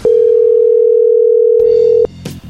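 A telephone call being redialed rings through: one loud, steady, mid-pitched ring tone holds for about two seconds, then cuts off as the call connects, leaving brief faint line noise. No one speaks.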